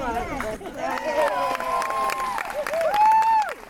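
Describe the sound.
A crowd cheers and whoops loudly, many voices overlapping in a sustained wash of high-pitched shouts, with scattered claps mixed in throughout.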